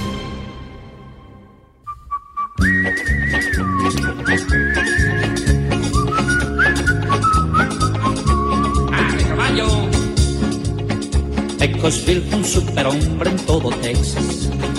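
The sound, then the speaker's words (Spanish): A bright whistled melody carries a western-style tune over a full, driving band backing, loud, starting after a brief faint intro and continuing throughout. “Bueno, bueno, me imagino yo a, nuestro próximo invitado silbando la canción de Pecosville, porque además la canción pega con su, con su forma de ser.”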